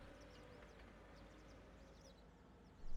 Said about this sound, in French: Il y a de plus en plus d'oiseaux.